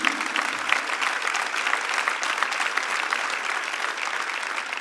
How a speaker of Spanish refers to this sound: Den un aplauso bien fuerte a Jesús.